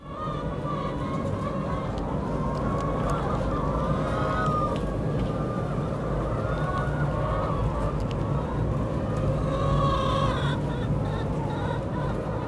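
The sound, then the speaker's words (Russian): A dense, constant chorus of many chickens clucking and squawking together, loud, in a barn on a farm, with overlapping calls for the whole stretch, no talking. “Вот мы вам сейчас еще разочек включим звук, как кудахтают курицы на этой ферме, и вы скажете, похожи они на счастливых или нет.”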